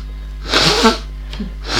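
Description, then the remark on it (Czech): Someone blows their nose: a loud, rough, hissing burst lasting about half a second, then a shorter second blow starting at the end, with no talking. “A teď se vysmrkám, sorry.”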